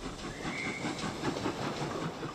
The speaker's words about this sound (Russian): но раздался свисток паровоза. Примчался поезд, он бросился в купе.